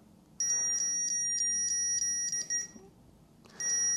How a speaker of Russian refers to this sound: И вот этот сигнал такой двумя тонами обозначает, что прибор перешел в ждущий режим.